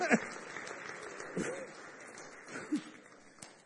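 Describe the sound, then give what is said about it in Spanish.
A crowd claps steadily for a few seconds in applause to God, a dense, continuous patter of many hands, with a few voices calling out briefly over the applause. “¿Cuántos damos un aplauso a Dios por estos temas tan maravillosos?”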